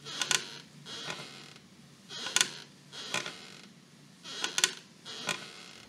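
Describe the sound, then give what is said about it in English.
A wooden rocking chair on a front porch creaks in a steady back-and-forth rhythm, six scratchy creaks falling in loose pairs, moderately loud against a quiet outdoor background with no talking. “That's my rocking chair on the front porch.”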